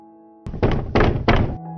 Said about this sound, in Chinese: 有一天，穿着尿布的小鸭鸭跑到好朋友小猪的家门前，敲敲门说：